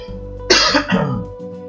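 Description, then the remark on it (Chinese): A short burst of harsh, throaty coughing from someone nearly over a cold, with inflamed bronchi, two or three rough coughs in quick succession with a raspy throat-clearing quality, loud against an otherwise quiet background and no talking. “好啊，搞那个咳嗽，感冒其实差不多好了，但是就是咳嗽，讲话讲话就很容易咳嗽。”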